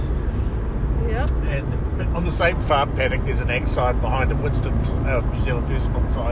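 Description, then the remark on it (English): Steady low road rumble fills the whole recording, the constant drone of a moving car's interior with traffic noise, driving on State Highway 6 on the way to a candidate meeting in Kaikoura, while people chat over it throughout. “uh, on our way to the uh, Kai- one of the Kaikoura candidate meetings, and uh, so passing all of these things on the road, and hence the traffic noise you can hear.”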